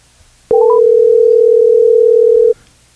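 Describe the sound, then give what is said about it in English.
A phone ringing tone on an outgoing call trying to reach someone: a single steady electronic tone held for about two seconds, loud and clear, opening with a few quick rising blips. No one speaks. “It's ringing.”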